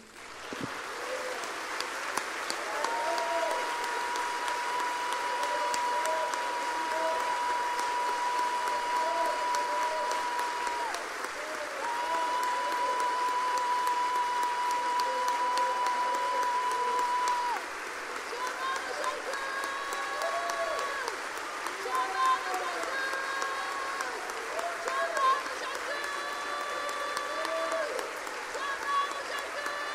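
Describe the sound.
An audience applauds to exalt the Lord during worship in a steady, dense roar of clapping that runs unbroken for the full half minute, with indistinct voices and a thin held tone mixed into the noise.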